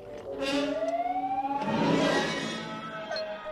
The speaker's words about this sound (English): Actually, do you know what? I'm going to pour myself a glass of water and I'm going to talk about Star Wars.